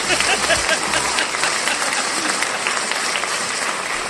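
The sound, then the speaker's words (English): Canned studio audience applause: a dense, steady wash of many hands clapping at a constant, fairly loud level for about four seconds, with no voices over it. “you can't trust a studio canned audience.”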